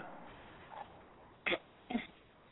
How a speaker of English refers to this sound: I hear you clearing your throat, but I but you're not saying nothing.